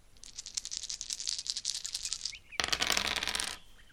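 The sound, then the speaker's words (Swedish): Dice rattle in quick clicks for a couple of seconds, then tumble and clatter loudly across a hard tabletop before settling, with no talking. “Jag slog 13. Jag slog 17.”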